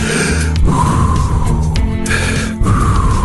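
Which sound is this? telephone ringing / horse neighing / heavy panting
heavy panting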